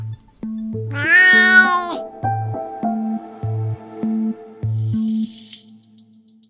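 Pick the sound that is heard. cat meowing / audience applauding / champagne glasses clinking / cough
cat meowing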